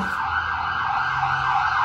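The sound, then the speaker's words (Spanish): An emergency siren blares loudly and steadily for the whole two seconds near the Turi prison, a sustained high-pitched wail over a low rumble of traffic, with no voices. “Disculparán, estamos cerca de la cárcel de Turi.”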